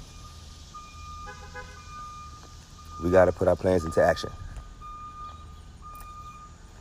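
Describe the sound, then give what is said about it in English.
A handicap-accessible bus idles with a low engine rumble and a steady high whine running throughout, picking a woman up for church in the morning, while a man speaks briefly over it partway through. “That's the um, the handicap bus picking”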